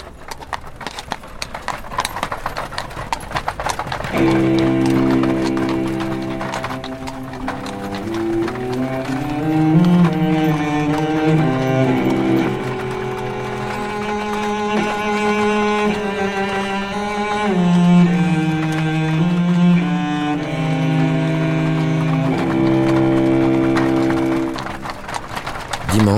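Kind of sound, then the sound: animal, horse-drawn carriage hooves clip-clopping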